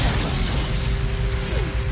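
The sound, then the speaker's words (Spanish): A cabinet explodes inside a clinic: a loud explosion roar, a dense rumbling blast of noise with heavy low end that stays steady and powerful for about two seconds without any speech. “La explosión del armario lo lanza hacia atrás.”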